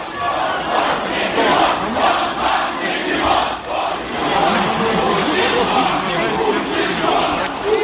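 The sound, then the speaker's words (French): A large protest crowd at an anti-corruption demonstration in Moscow shouts loudly and continuously, voices overlapping in a dense roar with rhythmic surges of chanting, crying "Shame" as it pursues the convoy taking away Alexis Navalny, sustained at high volume for the whole clip. “Honte crie la foule qui poursuit le convoi qui emporte Alexis Navalny.”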